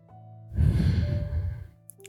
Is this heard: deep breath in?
yes